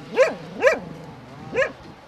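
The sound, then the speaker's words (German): Truffle-hunting dogs in cages beside a truffle shop in Istria bark three times in sharp, slightly yelping bursts, two in quick succession and a third after a brief pause, fairly clear and moderately loud with no voices. “mit ihren Trüffelhunden, die Sie schon im Hintergrund hören”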